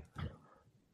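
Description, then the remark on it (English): A single short dog bark sounds in the room, somewhat muffled and moderately quiet, followed by a low hush of room noise with no voices. “We needed to get their appearance in before the end.”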